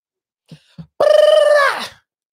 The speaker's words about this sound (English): I know you know how to vibrate your tongue like that. Do it again.